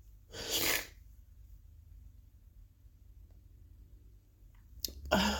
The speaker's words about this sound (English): I'm really sorry for the sniffles. I'm really sorry for the crying.